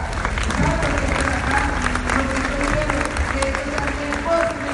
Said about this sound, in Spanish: tengo varios de mis compañeros de trabajo, de mi compañía. Y para ellos, de verdad, que un fuerte aplauso por estar hoy acá.